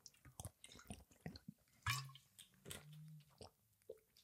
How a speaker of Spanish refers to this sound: Os doy cinco segundos para pensar mientras tomo una San Pellegrino, una agua de estas con gas, trago dramático.